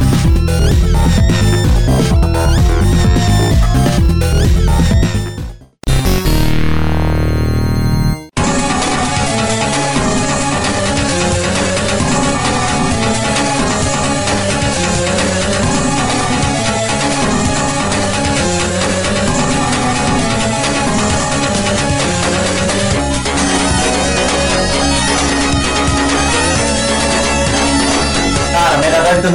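Loud, driving 16-bit video game soundtrack music from Streets of Rage plays throughout, briefly cut by a short gap with a sweeping tone before the full tune kicks back in and continues without any talking.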